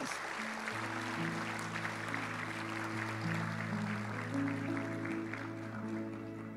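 A church audience claps for the Lord during a sermon, steadily and continuously over sustained, held keyboard chords, the dense patter of applause filling the whole stretch without any talking.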